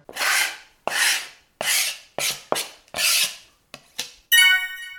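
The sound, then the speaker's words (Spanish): A rapid series of about seven sharp blade slashes, each a loud rasping swish, ending in a bright metallic ring as a knife is drawn. No one speaks. “Y después de esos cuchillazos, pues venga a esta sección, navaja de doble filo.”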